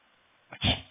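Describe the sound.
A voice imitates a sneeze: a short, sharp intake followed by one loud, breathy burst after a moment of near silence.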